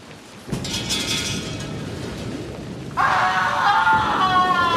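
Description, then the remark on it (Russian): A thunderstorm: steady rain-like roar begins abruptly, then a loud crack of thunder bursts in near the end and rumbles on over the downpour. No voices. “И тут разразилась гроза.”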